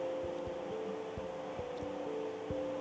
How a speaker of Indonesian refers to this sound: Buat para pendengar, hujan gini enaknya ngobrolin tentang apa ya? Tapi maaf aja, kalau suaranya agak agak-agak jelas karena hujan di belakang.